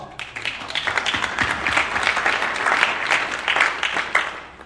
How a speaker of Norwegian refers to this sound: Du, det måtte være såpass applaus for 5000.